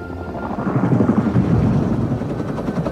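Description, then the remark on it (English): A helicopter flies by, its rotor thumping in a steady rapid pulse over a dense engine roar that swells slightly in the middle and stays loud throughout. “Helicopters. There's no helicopters in Viking times.”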